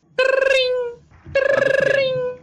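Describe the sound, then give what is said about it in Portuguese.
A telephone rings twice, each ring a loud, steady trilling tone lasting just under a second with a short gap between them. “Dois minutos depois que o coronel sai da sala, o telefone do Mário Tucci toca.”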